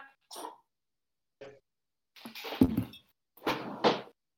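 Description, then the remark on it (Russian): A cat coughing and hacking in a series of short, raspy bursts. Quieter at first, then louder, ending with two strong retching heaves, with no talking. “А, это он откашливает.”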